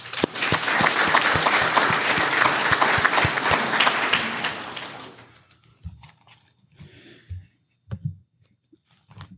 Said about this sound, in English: So thanks so much for joining us here this morning. Ladies and gentlemen, a round of applause, please.